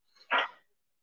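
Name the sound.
dog barking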